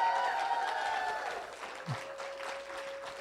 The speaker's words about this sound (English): Awesome. Let's give another big hand for our Grace Kids. They were fantastic, guys.